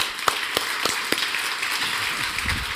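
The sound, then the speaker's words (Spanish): An audience applauds for the teachers, a dense, steady wash of clapping with a few sharper individual claps popping out at a rough regular beat. No one speaks over it. “Un aplauso para todos esos maestros y maestras, la verdad.”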